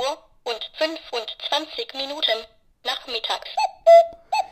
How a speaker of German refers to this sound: Jetzt ist es 2 Uhr und 25 Minuten nachmittags. Jetzt ist es 2 Uhr und 25 Minuten nachmittags. Das ist also der Wecker und ihr merkt, der nervt jetzt genug.